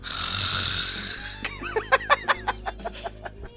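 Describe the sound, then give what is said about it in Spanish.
A voice imitates loud snoring, mimicking a companion who snored in a silent movie theater: a long rasping inhale, then a rapid series of about ten sputtering, snorting pulses trailing off. No other speech. “Y aquí mi compañero, cada cinco minutos, empezaba.”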